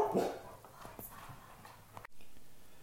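The family dog Guagua, inside an Airbnb, barks loudly at people outside the door in a short burst at the start, then a few softer yelps and whimpers follow before the sound cuts off abruptly into a steady low hiss.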